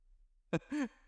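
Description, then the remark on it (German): A voiced yawn from a person stretching: a short sharp intake followed by a longer, drawn-out tonal exhale that trails off, heard alone against quiet background. “Ich strecke mich gerade noch so ein bisschen durch, gähne einmal durch.”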